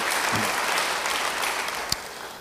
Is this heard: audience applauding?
yes